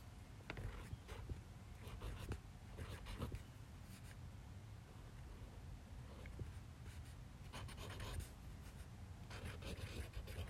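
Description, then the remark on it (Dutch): A marker pen scratches across paper in short bursts of strokes, some quick and squeaky, with pauses between words. It sounds soft, with no talking. “Mijn pen doet een beetje vervelend. mijn pen is ook eigenlijk een stift.”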